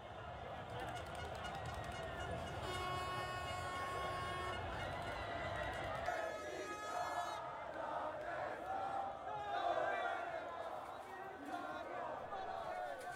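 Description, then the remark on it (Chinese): A street crowd in Italy cheers and shouts loudly and continuously after Italy won the European Championship for the first time in 53 years, with whistles and a few sustained horn-like tones rising above the dense, roaring din of many voices. “您刚刚听到的这段音频，是时隔了五十三年，意大利再次夺得欧洲杯冠军后人们的欢呼声。”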